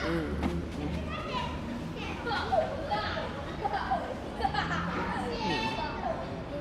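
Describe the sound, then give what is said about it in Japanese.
Children playing outdoors in a park, their overlapping voices and shouts forming a continuous lively chatter, with occasional higher cries rising above a steady background hum. “ここも子供いっぱいいるねこの公園もねなんかいいよね、うん、いい子供の声いいよね”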